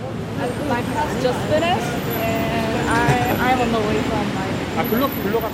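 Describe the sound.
Steady street traffic with a bus or heavy vehicles rumbling past, a continuous roadway hum, and indistinct voices chattering in the background throughout.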